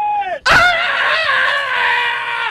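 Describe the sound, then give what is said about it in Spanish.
A loud, high-pitched shouted call used by a tribe to communicate: a short lower note, a brief break, then a sharp burst into a long, sustained, wavering yell, with no other sounds. “Es a grito que nos es una tribu que nosotros ah, pertenecemos, que nos, nos comunicamos a grito.”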